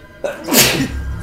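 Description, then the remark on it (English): A single loud sneeze with a quick breathy intake followed by a sharp explosive burst that trails off into a low rumble. “Bless you, Daddy.”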